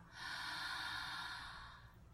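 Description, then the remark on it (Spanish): A single long, forceful breath through the mouth in connected breathing, a steady airy rush that swells quickly and fades after nearly two seconds, loud with no talking. “Ese es el sonido que hay que hacer. Ah, como una ballena. Como si respirando. La respiración conectada.”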